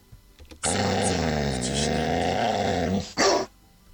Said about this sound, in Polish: Jedno szczeknięcie było, tak? No tak. Czy no tak. A wcześniej było, było słychać, tak, tak, a wcześniej, a wcześniej było warknięcie.